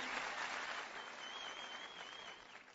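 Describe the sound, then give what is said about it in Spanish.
Steady applause from an audience for the team's diamonds, emeralds, leaders and support team, a dense wash of many hands clapping at an even level for a few seconds, with a faint whistle-like tone running through the middle. “Quiero dar un aplauso a todos sus diamantes, a todos sus líderes, a todos sus esmeraldas que están ahí, tu equipo de apoyo.”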